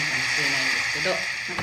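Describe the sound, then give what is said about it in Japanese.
Ocean waves from the last of a set of wave recordings, heard as a steady, hissing wash of surf, continuous and fairly loud with no distinct individual breakers, heard on its own without anyone talking. “これは最後に撮った波の音をね今、えー、鳴らしていますけれども”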